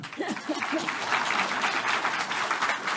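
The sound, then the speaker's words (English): An audience claps steadily for a few seconds while the speaker takes a drink, a dense, even patter of many hands with a brief voice or laugh murmuring underneath at the start. “When I drink, you clap.”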